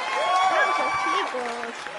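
Steady, dense clapping from a group welcoming a special guest from Argentina onto a programme fills the whole two seconds, with high rising and falling cheers or whoops riding over the applause.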